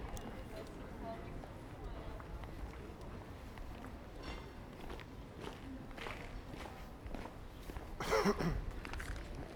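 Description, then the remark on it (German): Steady footsteps crunch and clack across cobblestone pavement at a walking pace, moving from small-stone cobbles onto large-stone cobbles, over a constant noisy outdoor background, with a louder scuffing burst near the end. “Man hat jetzt tatsächlich gehört den Übergang von ähm, Kopfsteinpflaster mit kleinen Steinen zu Kopfsteinpflaster mit großen Steinen.”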